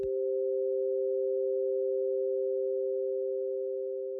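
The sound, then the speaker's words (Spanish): Two steady, pure-sounding tones, sounds 8 and 9 of the harmonic series, sustain together for about four seconds, close in pitch and clashing into a slightly harsh, dissonant blend, with no voices. “Percibimos que los sonidos 8 y 9 generan una mayor disonancia, es decir, son menos agradables de escuchar juntos en comparación con los sonidos 3 y 4.”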